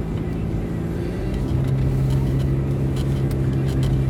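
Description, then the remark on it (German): A garbage truck passes going the other way, its heavy diesel rumble blending into a steady, loud low drone of road traffic, with the engine tone shifting partway through. “Ah, da ist die Müllabfuhr, aber in der Gegenrichtung.”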